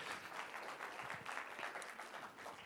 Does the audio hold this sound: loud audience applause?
yes